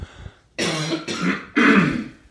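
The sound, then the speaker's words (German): A person clears their throat three times in quick succession, harsh raspy bursts, the last one the loudest and longest, with no talking. “Ich habe einen Frosch im Hals.”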